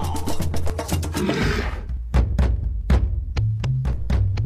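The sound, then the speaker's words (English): A person loudly imitates a walrus bellowing: a long, rough, growling roar followed by a string of shorter, pulsing grunts, with no other sound around it. “Ah, your walrus bellowing in my ear.”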